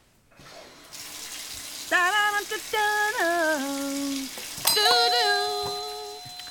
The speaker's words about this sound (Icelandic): Næsta þraut heitir Sturtu söngvarinn Hlustuð vel og nefnið nafnið á læginu Hvað er styrtu söngvarinn að syngja?